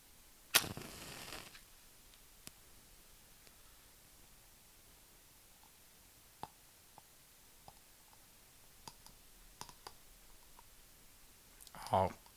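A candle wick crackling and spitting: sparse, irregular sharp pops and ticks over a quiet, faint hiss, with a brief louder fizzing burst near the start and again at the end.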